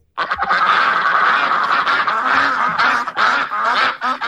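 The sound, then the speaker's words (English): Loud, continuous duck quacking fills the whole stretch, several calls overlapping into a dense, busy chorus with no pauses and no voices. “yeah uh, well, yeah, let's let's get into some what's quacking here.”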